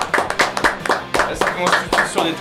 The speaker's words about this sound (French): Vous pouvez applaudir les gars parce qu'on est que 4